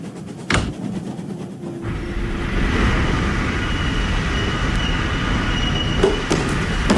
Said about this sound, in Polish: Ale to sam się dziwię, że ten pociąg się zatrzymał. No i jedzie, i jedzie i, i naraz stoi.